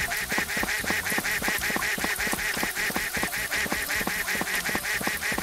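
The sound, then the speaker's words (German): Rapid, evenly spaced electronic duck quacks from a video game repeat continuously in a steady mechanical rhythm, loud, with a bright synthetic tone and no voices present, as the duck moves back across the screen. “Jetzt geht die Ente wieder zurück.”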